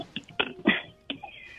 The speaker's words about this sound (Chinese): 清清嗓子。